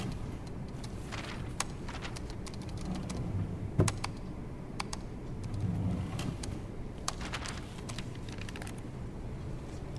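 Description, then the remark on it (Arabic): Scattered, irregular clicks of keys being pressed on a computer keyboard in an office as someone checks the computer, fairly faint, over a steady low background rumble with no talking. “ركز يا فارس شيك على الكمبيوتر”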